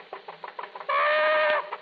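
A chicken clucks in a string of quick, choppy bursts, then lets out one long, loud, shrill squawk before settling back to a couple of soft clucks.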